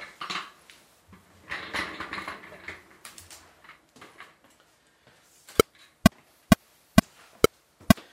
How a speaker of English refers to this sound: So that annoying sound, that's a click track, and that's how I start doing these things. I play along with this click track.